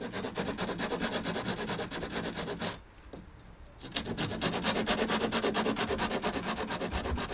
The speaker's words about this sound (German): aus Kanada hat gerade Lampen auf dem äh, Flohmarkt gekauft und schraubt sie an die äh, Decke eines der Holzhäuser.